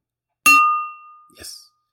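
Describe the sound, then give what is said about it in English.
A single bright clink of a knife tapping a water glass, ringing out clearly with a long sustained tone, followed by a short burst of a voice. “That is a knife hitting a water glass.”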